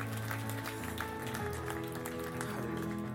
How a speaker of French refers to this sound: Quelqu'un peut applaudir le Seigneur.